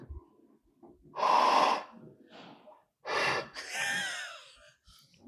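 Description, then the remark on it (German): Wet, spitty blowing into a flute: a few loud, breathy bursts of air, the later one carrying a thin, wavering whistle-like tone, with short pauses between them. “Wenn so, ein, wenn so ein Kind mit extrem viel Speichel im Mund durch so eine Röhre spricht, dass da so ganz viel Feuchtes drin ist.”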